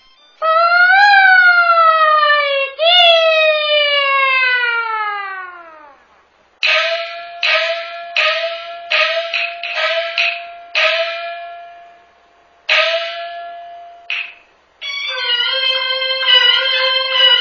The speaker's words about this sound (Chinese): 现在我们听到的是京剧表演艺术大师梅兰芳的《贵妃醉酒》选段，耳畔这优美动听的梅腔，世称梅派，在京剧界影响很大。